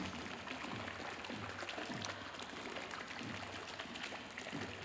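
Fountain water splashes continuously at a steady, moderate level in a small square in Seville, Spain, a dense hiss of falling droplets with a faint low hum of outdoor ambience beneath it.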